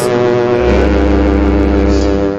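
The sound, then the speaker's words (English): A single long, loud foghorn blast, deep and droning, holding steady for a couple of seconds with rich low harmonics and no voices over it. “Give us the horn. foghorn.”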